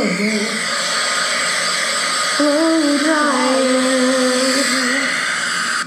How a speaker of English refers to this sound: Wait. That must be a Conair, because I know good and well. that sounds like a blow dryer.